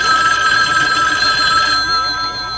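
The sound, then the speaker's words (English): A telephone bell rings continuously and loudly, a bright sustained metallic jangle with steady harmonic tones, with no voices over it. “but yeah, I get a ringing telephone.”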